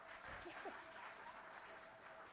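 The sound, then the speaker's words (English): In a church, an audience applauds a woman invited up to the front, with steady, dense clapping that fills the whole stretch at an even level, with a faint voice briefly audible underneath. “Yeah, you can clap for her.”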